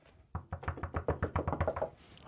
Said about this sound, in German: Mit Klopfen auf dem Tisch. Ja. Das Erdbeben klopft quasi an.